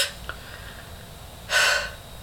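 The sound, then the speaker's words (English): A voice imitates another person's shallow gasping breaths: a faint quick intake, a short pause, then one louder, breathy gasp. No speech. “I was con- like your your breathing was so shallow that it was like like”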